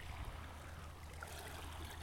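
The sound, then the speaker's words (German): Soft, steady rush of flowing water, like a stream running continuously, with a low rumble underneath and no voices. “Dann machen sie so, so ein Wassergeräusche an, weißt du?”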